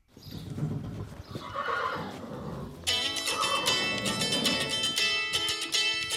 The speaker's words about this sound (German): Allerdings möchte ihr Pferd bei diesen Telefonaten irgendwie mitreden und wiehert immer wieder dazwischen.